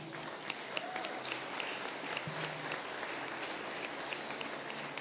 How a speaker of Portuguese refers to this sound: ficar de pé para receber nosso pastor. E uma salva de palmas para Jesus.